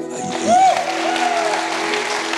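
An audience claps steadily for a couple of seconds, a dense, even patter of many hands, with a brief whooping cheer rising above the applause near the start.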